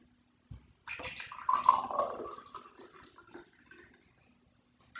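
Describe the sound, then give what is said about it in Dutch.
Drinking water pours steadily into a glass for a few seconds, a splashing stream whose pitch rises as the glass fills, then it tapers off into quiet. “Maar nog wat water? Oh, natuurlijk, ja. Even het drinken.”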